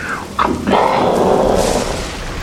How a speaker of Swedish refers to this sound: Nu hör regnet liksom. Eh, har mer eller mindre börjat hälla ner.